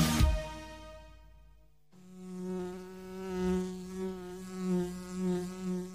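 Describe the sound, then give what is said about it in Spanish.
A bee buzzes steadily, its drone wavering in pitch and loudness, preceded by a brief sharp click at the start and a quieter hum. “Este es el zumbido de la abeja de Andes Origen Miel.”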